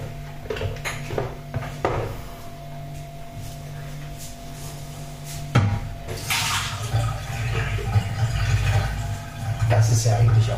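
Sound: water being poured out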